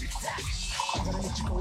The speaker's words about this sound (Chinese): 听倒水的声音是不是特别想尿尿？